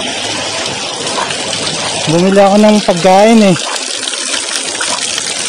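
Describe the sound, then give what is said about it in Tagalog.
Heavy rain pours steadily outdoors amid local flooding, with a constant rushing-water hiss filling the whole scene, loud; a man speaks briefly over it partway through. “nandito ngayon ako sa labas medyo malakas yung ulan”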